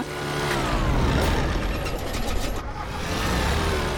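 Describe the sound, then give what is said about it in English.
An old bush plane's engine drones loudly and continuously in flight, with a brief falter in its roar partway through as the engine seems to die for a second, before it carries on steadily. No one speaks. “Uh, it sounded like the engine died for a second. These old bush planes do stuff like that all the time.”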